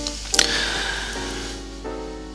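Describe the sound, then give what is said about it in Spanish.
Steady whooshing fan noise with a faint tonal whine from laptop fans spinning at full speed alongside an air conditioner, with a brief click near the start and no voices. “Los ventiladores a tope, o sea, no sé si se escucharán, pero bueno, mm, se escucha el aire acondicionado y los ventiladores del Mapuque ahí a, tope.”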